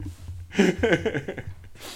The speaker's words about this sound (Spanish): Pero no bosteces en directo, hombre, que se lo pegas a la gente. Es el tercer bostezo.